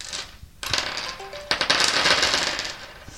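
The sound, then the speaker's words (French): Picture dice rattle and tumble across a tabletop in a quick burst of bright clattering clicks that lasts a couple of seconds before settling, with no one speaking. “est-ce que tu accepterais euh, de jouer le jeu et de lancer euh, les dés dessinés ah. qui sont là devant toi”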